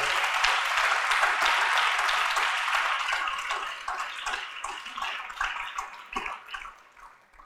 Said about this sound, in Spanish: No sé si le quiere dar una ofrenda de palmas al rey.